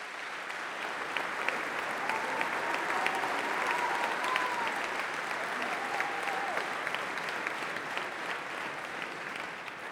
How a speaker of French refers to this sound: avant que Anne-Sophie, qui se trouve elle aussi dans la salle, vous pouvez l'applaudir aussi, Anne-Sophie Pelletier,